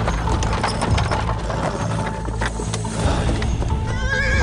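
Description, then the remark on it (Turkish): Several agitated horses neigh and whinny loudly and rear up, their rising calls overlapping as hooves clop and stamp restlessly underneath, with faint creaking of wood and tack mixed in; the horses have halted on a road blocked by piled logs. “Atlar bir huysuzlanıyor, şaha kalkıyor.”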